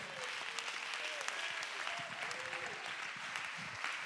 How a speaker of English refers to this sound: You have been faithful in a few things. Go ahead and clap your hands and give him praise.